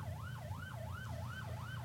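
A police car siren wails in a fast, rising-and-falling pattern over low traffic rumble in Dublin, heard from the back of a car, clear, with no talking.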